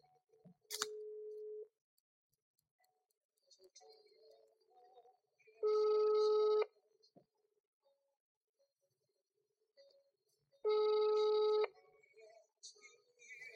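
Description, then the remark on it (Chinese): A phone line rings out twice as a radio station places a call, each buzzy, harmonic-rich ring lasting about a second with a long pause between, after a brief steady tone at the start; otherwise only faint background noise. “我们不如电话连线一下，怎样？”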